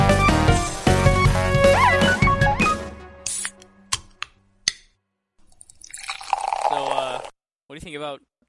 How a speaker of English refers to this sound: Crack open a cold box of wine or pour something cold on ice because it's the Binge Watchers Podcast.